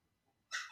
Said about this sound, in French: désolé pour le bruit du chien derrière, ça me saoule aussi.